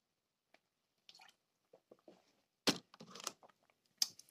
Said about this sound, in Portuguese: Ah, peço desculpa, estes, estes sons são bem, são bem nojentos. Se eu tivesse a ouvir um podcast que o gajo tivesse ah, e ouvir o gajo a beber água, esquece, eu, eu, eu basava logo.